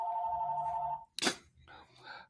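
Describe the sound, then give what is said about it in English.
A steady electronic ring from the club's telephone sounds clearly for about a second, then stops abruptly. A brief noisy clatter follows, and a person begins speaking. “Um, that's the club's phone.”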